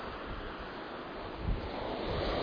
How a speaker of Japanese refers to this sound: そして右手側には太平洋ですね太平洋をですね海がザッパンザッパン来てますすごいですね迫力があります